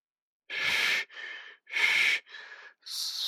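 Heavy, ragged breathing of a man bleeding heavily from his arm, with loud rasping breaths alternating with softer ones in a quick, uneven rhythm, like someone panting hard. No one speaks.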